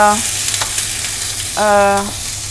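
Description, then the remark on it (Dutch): Minced meat, cooked without oil, sizzles steadily in a pan with a few scraping clicks as the single large lump is chopped up, while a low buzzing tone sounds briefly at the start and again near the end. No one speaks. “ik ben nu de, ehm, het gehakt een beetje aan het”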